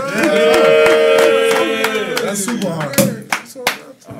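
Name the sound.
audience clapping and cheering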